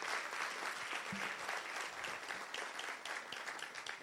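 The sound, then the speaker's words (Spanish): A church audience bursts into sustained applause for Jesus, a dense, steady wash of many hands clapping for about four seconds with no talking over it. “Y la iglesia dice, dale un aplauso fuerte a Jesús si tú lo crees.”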